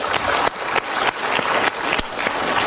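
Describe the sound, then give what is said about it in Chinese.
Steady applause from a large audience at the Summer Davos forum, welcoming Jack Ma on stage, a dense wash of many hands clapping at an even level throughout, with no voices rising above it. “来，我们热烈的掌声欢迎一下马云先生。”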